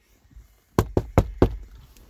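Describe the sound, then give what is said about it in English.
Four firm knocks on a door at night in quick, even succession, loud against an otherwise quiet background. “Who the bloody hell's that at the door at this time of night?”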